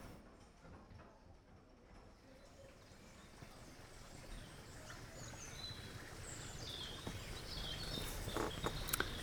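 Hollow, muffled hoof clops of a horse thud overhead on a bridge, recorded from beneath with microphones placed directly under the bridge, growing louder and more distinct toward the end, with birds chirping faintly in the open air around them.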